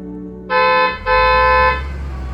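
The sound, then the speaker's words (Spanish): Two loud car horn blasts, a short one and then a longer one, sound over the low rumble of idling traffic in a traffic jam where cars have not moved for 20 minutes, on the way to the airport. “Bueno, eso con suerte si el caos de tránsito en el que estaba metida avanzaba.”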